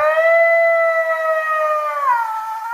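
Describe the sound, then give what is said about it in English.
A loud, sustained Bigfoot-style howl sound effect: one long, steady, tonal wail that holds its pitch, then bends downward near the end, with no talking over it. “What does Bigfoot think of this?”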